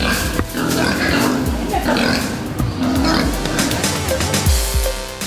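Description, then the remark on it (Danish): Pigs grunting and oinking, a steady stream of low snuffling grunts and squeals that carries on without pause across the whole recording. “hej Grise.”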